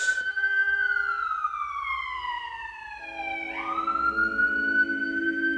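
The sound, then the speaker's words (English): A loud siren wails, its pitch sliding slowly down and then rising again, clear with a low background rumble and no voices. “The beauty of the siren is he's watching himself recover into a beautiful sympathetic ease.”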